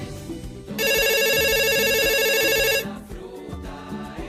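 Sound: telephone ringing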